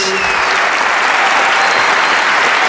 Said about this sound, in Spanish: estamos en la ciudad de Salta, en el Teatro Provincial, con mucha, mucha gente amiga que se ha acercado hasta aquí muy probablemente por error. Vamos a saludar, por favor, con una ovación inolvidable